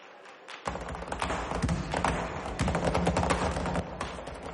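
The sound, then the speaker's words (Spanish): After a brief silence, a flurry of rapid flamenco heel stamps (zapateado) from a bailaora's dance performance breaks out: sharp, loud, tightly packed strikes of the heels in a driving rhythm that keeps going to the end, with a low sustained tone underneath. “Aprovecha el sonido de los tacones para correr por la planta de arriba.”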